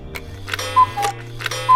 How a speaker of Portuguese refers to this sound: Imaginem transformar a nossa cabeça num relógio de cuco e quando a abanamos, o cuco sai pelo nariz e faz.